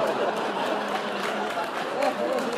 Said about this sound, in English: I don't know why the audience is cheering about that.